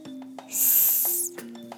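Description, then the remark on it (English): A person letting out air in a breathing exercise makes a single steady hissing exhale, like a snake's 'sss' or the letter S, lasting under a second and fading out. It is fairly loud over a faint background hum, and no one speaks. “When you let out the air, you can make the sound of a snake or the letter S.”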